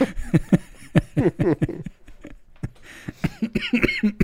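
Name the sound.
coughing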